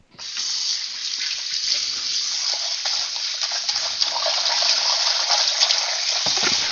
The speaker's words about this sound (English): Rinse the bowl out real quick, get that rinsing.